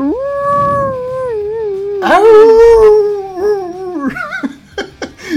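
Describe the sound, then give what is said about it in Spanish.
A dog howls in long, wavering tones that rise and fall, then breaks into shorter yelping cries near the end, loud with no talking. “¿Qué, qué, sentimiento de aullidos hombre.”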